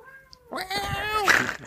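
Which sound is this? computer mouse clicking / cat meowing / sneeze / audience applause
cat meowing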